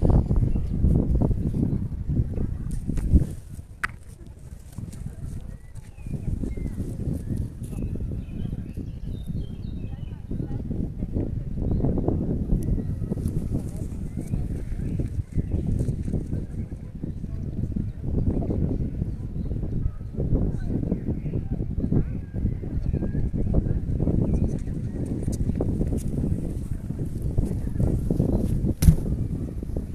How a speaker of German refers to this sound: dieser Wind hier ist Legende. Wir hören ihn nicht. Auf dem Podcast hört man ihn.